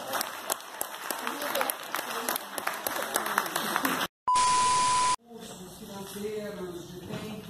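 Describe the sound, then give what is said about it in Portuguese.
An audience claps steadily for about four seconds for a team, a dense patter of many hands, then a sudden loud steady beep cuts in before a voice begins speaking. “Então foi isso que esse time maravilhoso bolou, com uma preocupação enorme com os nossos clientes que são caríssimos, são o nosso maior ativo e eu gostaria de mais uma salva de palmas para eles.”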